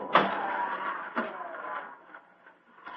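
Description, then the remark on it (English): A trick barber chair tips a person over and down through a trapdoor with a sharp mechanical clunk, followed by a second thud and a grinding, creaking slide that slowly fades as the trapdoor drops away. No voices. “Into the chair with you, and over and down into the depths below.”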